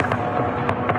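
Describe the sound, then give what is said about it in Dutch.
A kamikaze drone drones steadily overhead in Kyiv, Ukraine, in the morning, with a rough, engine-like buzz, broken by a few sharp bursts like shots or bangs as people try to shoot it down. The whole second is dense, noisy and fairly loud, with no voices. “Eh, ik zag ook nog een kamikaze drone.”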